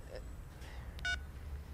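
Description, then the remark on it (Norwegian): A short, bright electronic beep from a mobile phone keypad, preceded by a fainter blip, over a quiet, low background hum, as someone gets out their mobile phone. “Eh, ja, jeg skal bare finne fram mobilen.”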